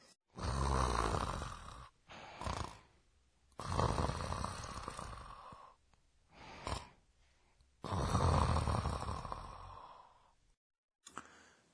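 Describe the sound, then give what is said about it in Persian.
A person snores loudly, with several long rasping breaths coming in an uneven rhythm separated by short pauses, and no other sounds around it. “انگار یکی داره خوروپف میکنه مگه نه؟”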